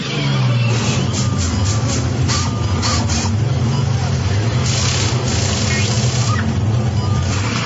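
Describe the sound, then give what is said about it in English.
NASCAR race car engines roar loudly and continuously, a dense, unbroken wall of mechanical noise with droning low tones that waver in pitch and brief brighter surges of hiss on top. “Vroom, vroom, vroom, vroom, vroom. I love NASCAR.”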